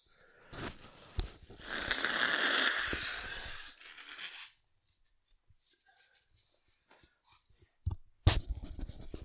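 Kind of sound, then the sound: human body sound, blowing nose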